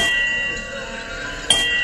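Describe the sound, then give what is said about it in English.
A Titanic hand bell rings steadily on air on BBC Three Counties Radio, its bright metallic tone hanging in the air, then gets struck again sharply near the end. Fairly loud, with no one talking. “keep, keep ringing your Titanic bell.”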